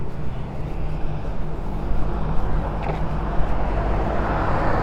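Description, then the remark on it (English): Steady outdoor street traffic recorded while walking along the street, a continuous low rumble of passing vehicles with a faint brief hiss partway through, with no one speaking. “Roam the street while recording.”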